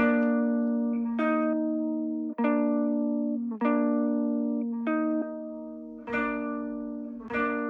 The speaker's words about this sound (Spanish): Esto es el puro efecto, el cuarto, esta es la pura guitarra y estas son juntas. Se fijan ahí, ahí ya tiene algo, ¿no? Ya tiene vida.